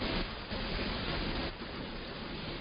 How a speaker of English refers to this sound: I'm getting a lot of hiss, though. Me too now. It just Yeah, happened. it seems like when I add this the fourth caller in, I get this hiss.